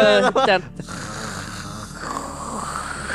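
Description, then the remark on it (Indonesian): A person snores: a short, rough snore with a growling, rasping tone like a tiger bursts out for under a second, then fades into a steady low hiss of background noise. “soalnya ada ada suara hario harimau menggeram siapa eh. apa siapa ngorok siapa”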